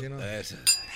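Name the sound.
glasses clinking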